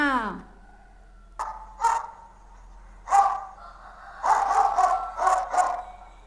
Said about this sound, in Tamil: நாம் வீடுகளில் வளர்க்கக்கூடிய நம்முடைய செல்ல பிராணியான நாய் என்ன செய்யும் குறைக்கும் நாய் குறைப்பதை கேட்கலாமா